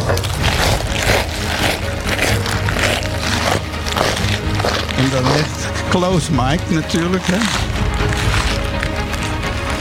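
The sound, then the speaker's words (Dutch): Loud crunching and chewing of a whole head of lettuce, eaten as a challenge to finish it within one minute, with dense crisp snaps repeating steadily throughout, while a voice talks briefly over it near the middle. “Want je moet dat kauwen en slikken en wegkrijgen.”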